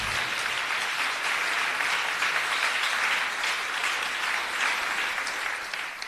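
An audience claps steadily throughout, a dense, loud wash of many hands with no pauses and no voices standing out.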